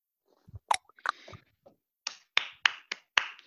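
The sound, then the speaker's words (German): A few scattered, sharp hand claps ring out, irregular at first and then settling into a quicker rhythm, with no talking; applause for a short poem and its introduction. “da gibt's Applaus und zwar nicht nur für dieses kleine Gedicht, sondern auch für die Einleitung, die ich als äh, sehr angenehm und gelungen äh, empfunden habe.”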